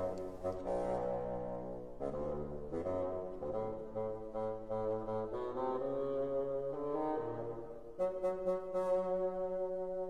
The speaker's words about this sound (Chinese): 接下来我们会听到大管，也就是我们常说的 basson 管的声音，它代表的是爷爷，非常低沉。